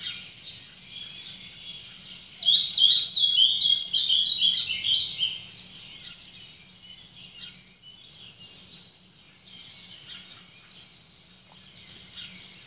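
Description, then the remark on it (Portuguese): Birds chirp steadily in the background, with a denser burst of high, twittering calls in the early seconds before settling back to a softer, continuous chorus. No one speaks. “Eu posso olhar para elas da mesma forma que ouço os sons, os pássaros.”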